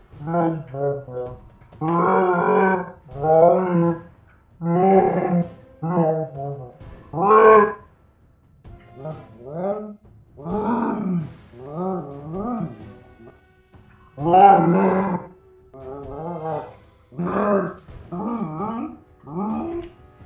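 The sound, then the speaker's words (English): A long, loud run of Wookiee-like growls and moaning roars, uninterrupted by talk, with bursts of varying length separated by brief pauses for about twenty seconds. “And now a very important announcement from the Kashyyyk Security Council.”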